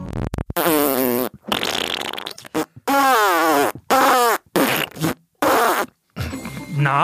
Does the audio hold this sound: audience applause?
no